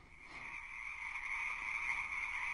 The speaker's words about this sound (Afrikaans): Sing vir 'n padda is soos om help te skree wanneer jy verdwaal het. Baba padda pof sy borskas op en sing.